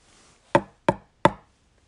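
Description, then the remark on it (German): Three evenly spaced knocks of a very soft golf ball with dots on it, taken from a display cabinet and held in the hand, against a tabletop. Fairly muted, each a short dull thud with a quick decay, no voices. “Ich klopfe den mal neben euch auf den Tisch.”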